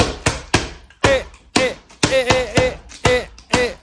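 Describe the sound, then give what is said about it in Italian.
A child taps a glass bottle repeatedly in a lively, steady rhythm, each sharp knock followed by a brief ringing tone whose pitch shifts slightly from hit to hit. No one speaks. “mi ha mandato un video in cui suonava una bottiglia.”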